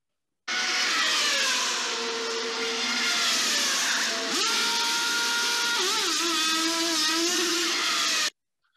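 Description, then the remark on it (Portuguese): A Ferrari racing car's engine drones loudly and steadily at a pit stop while the crew lift the car and change the tyres, its pitch wavering and shifting, with one sharp click partway through. No voices are heard. “Os encarregados de levantar o carro estão apostos e trabalham corretamente. A equipe que retira e coloca os pneus trabalha perfeitamente.”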